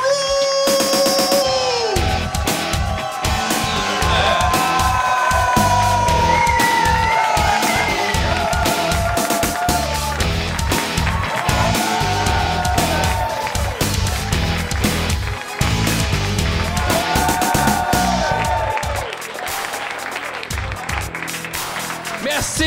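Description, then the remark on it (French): A live show audience at the Broadway applauds and cheers loudly and steadily for over twenty seconds, with whoops and shouts rising above dense clapping and voices calling out through the noise. “Commencez à applaudir, mesdames et messieurs,”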